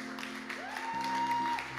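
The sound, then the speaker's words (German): An audience at a church service claps for the team, a steady, dense wash of applause that holds at an even loudness, with a sustained tone sliding up and then holding beneath the clapping. “Ja, komm, lass uns dem Team doch einen riesen Applaus geben.”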